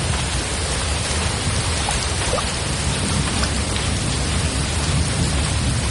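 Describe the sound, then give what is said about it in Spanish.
A heavy rain downpour pours down without pause, a dense, loud, steady hiss with a deep continuous rumble beneath it. No voices are heard. “Entre tanto, las hermanas sonríen contemplando el aguacero cubierta hasta su techado.”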